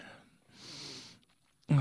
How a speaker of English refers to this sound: Sorry, I was yawning.